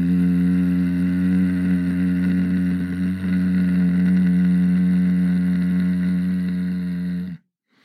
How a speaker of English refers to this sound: It's super, super similar, like the exact same thing, but you just don't make that om with your mouth. You just go out through your nose. So it sounds like this in through the nose, out through the nose.